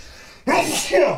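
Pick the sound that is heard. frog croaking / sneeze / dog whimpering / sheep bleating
sneeze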